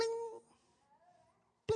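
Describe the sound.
A voice imitates attacks ricocheting off a war shield, as in cartoons: a sharp, ringing vocal tone, then a faint wavering hum, and a second abrupt loud burst at the end.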